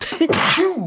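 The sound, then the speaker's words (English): A single sneeze: a short voiced intake followed by a loud, breathy burst that fades quickly, with no talking around it. “Bless you.”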